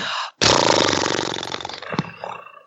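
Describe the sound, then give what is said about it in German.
A voice imitates a horse snort with a loud, buzzing lip trill: a short burst, a brief pause, then a long fluttering rumble that slowly fades, ending in a couple of softer puffs. “macht man nach dem Pferdeschnauben noch den Helikopter”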